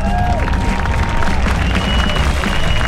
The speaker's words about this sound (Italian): Va bene, va bene. Metto degli applausi. Okay. Eh, applausi a caso oggi.